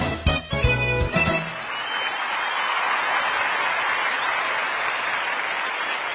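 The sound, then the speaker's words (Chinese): A short burst of music opens the 海洋 Live Show (Ocean Live Show), then steady audience applause takes over, a dense, even wash of clapping that holds at a constant loudness to the end with no voices. “谢谢大家在路上盲目的掌声。”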